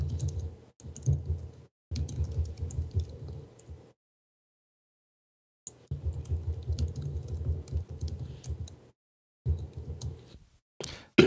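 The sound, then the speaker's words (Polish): Rapid, continuous computer keyboard typing in dense bursts of clicks, broken by a couple of short pauses and one longer silence, loud with no voices. “strasznie słychać twoją klawiaturę niestety.”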